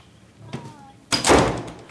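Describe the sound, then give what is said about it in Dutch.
The door of a small room opens with a soft creak and click, then swings shut with a louder, fuller thud, with no one speaking. “Opende de deur van het kleine kamertje.”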